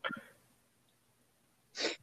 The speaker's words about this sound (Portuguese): quero espirrar, mandar um espirro, aí corta.